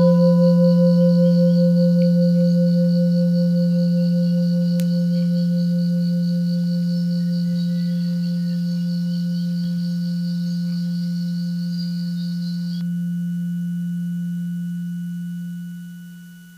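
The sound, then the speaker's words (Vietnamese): A single deep meditation bell, rung during a guided meditation, rings out and sustains, its low humming tone and shimmering overtones slowly fading over about sixteen seconds with no voices. “quý vị nghe một tiếng chuông thả lỏng thư giãn và trở về với hơi thở của mình”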